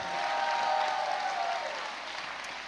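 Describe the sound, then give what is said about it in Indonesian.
An audience at a sermon claps for God together in a dense, steady wash of applause that stays loud for a couple of seconds, then tapers slightly, with no talking over it. “Berikan tepuk tangan yang lebih pantas bagi Allah kita.”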